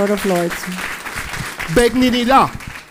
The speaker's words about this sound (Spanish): Dele ese fuerte aplauso al Rey de Reyes y Señor de Señores.